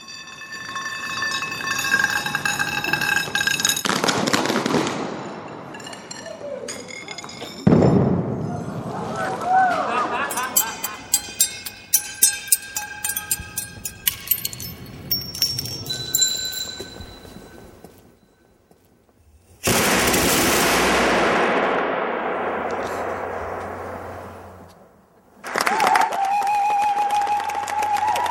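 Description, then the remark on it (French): A montage of sounds from artist Gwendoline Robin's performances: metallic scraping and ringing of dragged metal rods give way to bursts of clinking, shattering glass tubes, punctuated by two sudden loud explosive blasts that rumble and hiss before fading, then a steady roaring noise. “On va écouter quelques-unes des explosions ou des sons. Il n'y a pas que des explosions d'ailleurs qu'on va entendre.”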